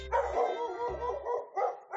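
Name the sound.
dog barking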